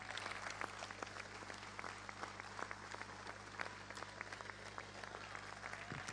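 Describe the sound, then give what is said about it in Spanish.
Steady audience applause during a speech about road works in the city of Paraná, a dense wash of many hands clapping at once with a few sharper claps popping out, sustained without letting up. “De esa manera, un fuerte aplauso, por supuesto.”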